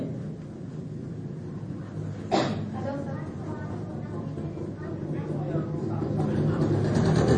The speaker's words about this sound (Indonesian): Sebentar ada motor dulu.